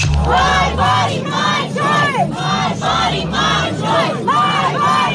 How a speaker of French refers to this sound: Mon corps, mon choix, c'est ce qu'on entend. Hein. C'est la manifestation des pro abortements euh, Lundi soir, devant la Cour suprême américaine